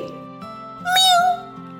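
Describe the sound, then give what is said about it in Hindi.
A single loud, drawn-out meow from an angry cat, with a strained, wavering pitch, rises for about half a second over a soft, steady musical drone. “अब यह बात सुनकर बिल्ली गुस्से में बोली”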